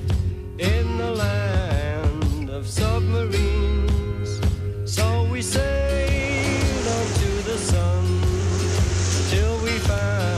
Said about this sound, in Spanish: no solo los efectos de sonido como estos, el agua, empiezan a formar parte de los discos de …